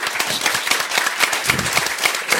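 An audience applauds steadily, many hands clapping in a dense, continuous patter of bright, crisp claps with no voices standing out.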